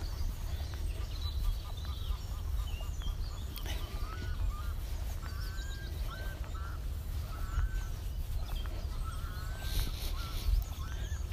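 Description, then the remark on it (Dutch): Birds call intermittently in the background, a scattering of short chirps and whistles over a steady low outdoor rumble, with no one speaking. “Misschien kun je bij mij op de achtergrond de vogeltjes horen.”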